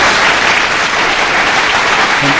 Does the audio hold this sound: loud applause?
yes